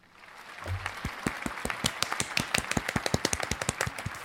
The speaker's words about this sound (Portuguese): E eu aplaudo essa frase.